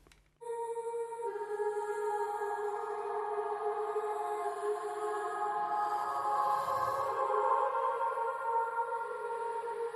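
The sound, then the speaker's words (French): The instrumental opening of a song from a newly released EP: layered, sustained synth chords hum steadily and loudly after a brief silence, swelling slightly midway with a soft low rumble, and no voices. “Et on va écouter ce soir un extrait de son EP qui vient de sortir.”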